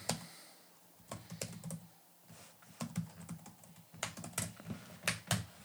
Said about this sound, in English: sorry, you hear me typing.